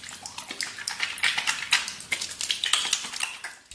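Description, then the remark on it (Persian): Hands being washed under running water to show the correct way of washing hands: a steady splashing hiss broken by irregular slaps and splashes as the hands rub and move through the stream. No one speaks. “بچه جون بیا بشین من شیوه درست شستن دستا رو بهت انجام بدم”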